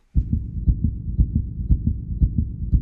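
racing heartbeat sound effect

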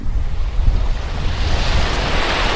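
ocean waves

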